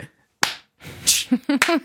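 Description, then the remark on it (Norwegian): A sharp hand clap rings out, followed by another noisy smack about half a second later, then a voice starts talking; the hands clap on beats one and three. “for jeg tenkte det eh, mest irriterende som finnes, er når nordmenn klapper på eneren og treeren.”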